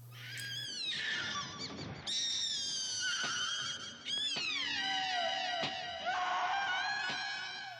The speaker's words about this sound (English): Her screaming was a joke. yeah. Well, her screaming turns into this like wah wah synthesizer wah, wah, noise.